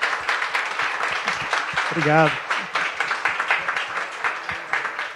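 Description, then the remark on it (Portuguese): Steady, dense audience applause given in thanks fills the whole stretch, a sustained crackle of many hands clapping, with a man briefly speaking over it partway through. “Eu queria demais agradecer vocês. Palmas.”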